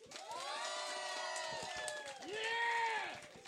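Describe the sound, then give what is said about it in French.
A crowd cheers and whoops loudly, with two long rising-and-falling shouts over a dense wash of audience noise and applause, energetic throughout. “Fait qu'on leur fait une grosse main d'applaudissements pour le 70 de ce soir.”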